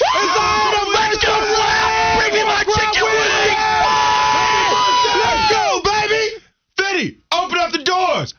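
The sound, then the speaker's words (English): A group of voices yells a loud, sustained war cry together for several seconds, the shouts overlapping and wavering in pitch before breaking off into a few short, ragged final whoops. “We're gonna yell though at the count of three. Let's all do it together.”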